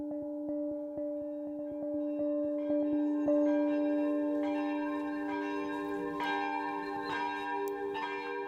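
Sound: church bells ringing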